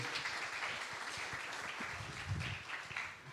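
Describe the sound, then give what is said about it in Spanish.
An audience applauds Ángel, who plays guitar at church services, for a few seconds: a dense, steady wash of many hands clapping at once that holds an even level throughout, with no voices over it. “Muy bien, démosle un fuerte aplauso a Ángel.”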